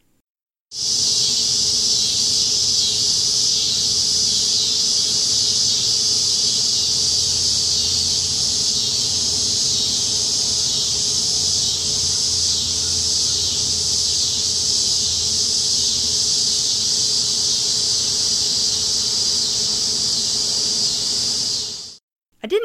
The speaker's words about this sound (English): Yes, they're loud, but I find their chiming restful. Cicadas call during the day when it's hottest, not at night. The insects you hear at night are usually katydids and tree crickets. This is what cicadas sound like.